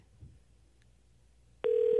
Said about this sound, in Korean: 자 전화 걸고 있습니다. 좀 창피하셨나 봐요. 전화 안 받으시는데요.